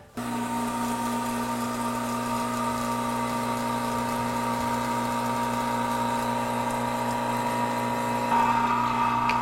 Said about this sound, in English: Okay, let's turn the vacuum back on and let this go for a while longer then.